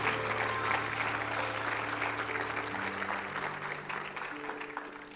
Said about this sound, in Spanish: Désele un fuerte aplauso al Señor.